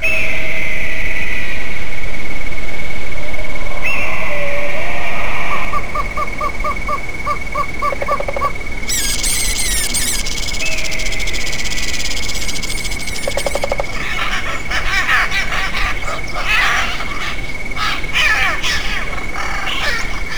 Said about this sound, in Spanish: vamos a continuar con un paisaje sonoro de animales que viven en los matorrales de México. Hay pájaros carpinteros, corre minos, liebres, en fin, un agasajo